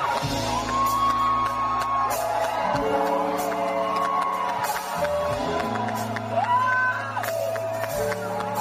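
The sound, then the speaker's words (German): A huge audience of thousands roars and cheers continuously as a singer stumbles onto the stage, with rising whoops and massed voices chanting her name in unison, loud and dense throughout. “Jubel. Riesenjubel. Ihr Name aus tausenden Kehlen.”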